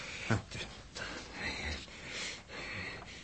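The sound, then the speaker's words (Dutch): A boy's breathing starts again: raspy, wheezing gasps come in uneven bursts, fairly quiet, with a noisy snorting intake near the start and more ragged breaths following. “Ja, ademhaling is weer begonnen.”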